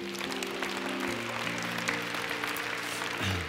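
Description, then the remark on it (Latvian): An audience at a Christian worship service applauds the Lord steadily for several seconds, a dense crackle of many hands, while sustained keyboard chords hold and shift underneath. “Dosim aplausu tam kungam.”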